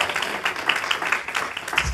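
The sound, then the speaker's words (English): A church audience claps together as praise to the Lord, a dense, steady patter of many hands that keeps a fairly even loudness for the whole two seconds, with no voices clearly standing out. “Yeah, give the Lord a good hand clap for the Lord.”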